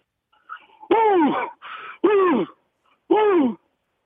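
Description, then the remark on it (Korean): A man imitates the roar of a male lion of the savanna grasslands with three loud, strained vocal bursts of a half-second each and a weaker one between them, with no talking. “자, 수사자, 사바나의 초원의 수사자 울음소리 들어보겠습니다.”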